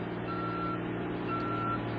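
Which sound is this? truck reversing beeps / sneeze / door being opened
truck reversing beeps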